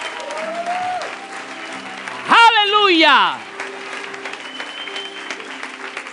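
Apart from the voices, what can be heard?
applause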